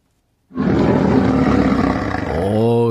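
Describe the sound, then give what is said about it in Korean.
A tiger lets out a long, loud, rumbling roar that starts abruptly after a brief silence and holds steady before trailing into a throaty, wavering growl, powerful. “호랑이 울음소리에 우리 특집 때 많이 들었죠.”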